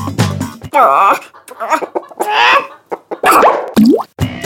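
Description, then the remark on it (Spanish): A person mimics a laying hen, letting out a loud run of clucks and rising squawks in uneven bursts over about four seconds. “en su presentación de Gallina Ponedora.”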